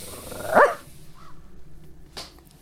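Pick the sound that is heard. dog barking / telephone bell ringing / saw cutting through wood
dog barking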